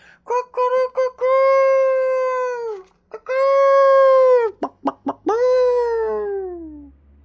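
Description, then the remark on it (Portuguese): A rooster crows three times in a row early in the morning, each call opening with quick clipped notes and ending in a long, loud, drawn-out note that falls away, clear with no talking. “Ele desistiu dos coelhos, e de manhã, bem cedinho, o galo cantava, e o cão não podia com tanta algazarra.”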